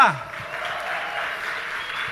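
Steady applause from an audience for a candidate being introduced, a dense wash of clapping that holds at an even level for about two seconds after a brief vocal sound at the start.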